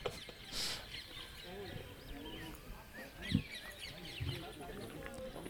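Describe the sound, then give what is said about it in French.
A busy outdoor mix of bird calls and fowl clucking at a bird park, with several overlapping chirps and squawks against a steady ambient background, plus a few brief louder calls. “C'est le parc des oiseaux, ça.”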